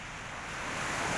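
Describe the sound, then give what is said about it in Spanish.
Ocean waves wash onto a sandy beach in a steady, broad hiss of surf that swells slightly louder toward the end, heard alone without any voices. “Disfruta el vaivén de las olas mientras tus pies se sumergen poco a poco entre la arena.”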